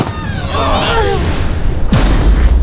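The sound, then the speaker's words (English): A heavy door swings with a wavering, creaky groan, then slams shut in one loud, deep boom that rumbles briefly afterward. “We have to shut the door to keep the sharp teeth inside!”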